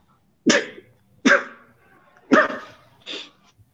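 A dog barks four times in short, sharp bursts with uneven pauses between them, fairly loud, with no voices or other sounds around it.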